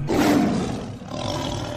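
A lion roars loudly, one deep, rumbling, sustained roar that fills the moment with no voices around it.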